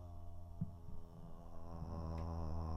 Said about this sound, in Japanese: ちょっと途中でマイク掴んだんでタッチノイズ入ってたかと思うんですけども、えっ、ー、と、音がだいぶ違ったのが分かったと思います。